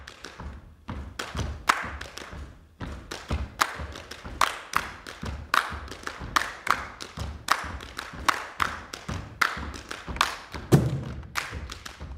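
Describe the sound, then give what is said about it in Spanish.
Cuban percussion music played by a Cuban percussionist, with a busy, steady rhythm of sharp hand-drum slaps and deeper thumps, repeating quickly and evenly at a fairly loud level, with no voices. “Vamos a escuchar un poco de su música para que ustedes vean por qué estamos tan contentos de recibirlo aquí en nuestros estudios.”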